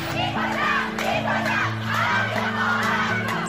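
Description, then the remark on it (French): A crowd of schoolgirls in Iran, mostly without veils, shouting in protest against the veil and the regime as they push a representative of the Ministry of Education toward the exit: loud, overlapping high-pitched voices chanting and yelling together continuously, with a steady sustained drone underneath throughout. “En Iran, ces collégiennes, pour la plupart sans voile, poussent vers la sortie ce représentant du ministère de l'Éducation.”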